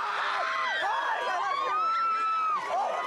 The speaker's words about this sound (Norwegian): De går fullstendig amok, menneskemengdene som har samlet seg utenfor den armenske kirken i Jerusalem. Kvinnen de hyler etter, heter Kim Kardashian, amerikansk reality-stjerne.